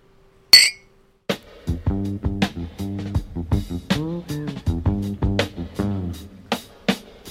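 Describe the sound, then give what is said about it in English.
A single bright clink of beer glasses touching in a toast, sharp, followed after a short pause by steady tonal music that carries on to the end. “you gotta do it right to my clink, man?”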